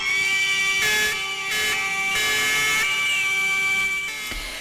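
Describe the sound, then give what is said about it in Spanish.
Fire brigade sirens sound loud and continuous in a steady, high tone, broken by several sharp bursts of harsh noise layered over them, during a morning protest by firefighters with flares and megaphones in front of the city hall in Vitoria. No one speaks. “Sirenas, bengalas, megáfonos acompañaban esta mañana la protesta de bomberos y bomberas de Vitoria frente al consistorio.”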